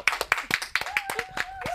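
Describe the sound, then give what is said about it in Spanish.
Lively applause welcoming a sports legend: a steady run of sharp, loud claps at a quick, even pace, with a few voices faintly cheering over them. “Un aplauso gigante.”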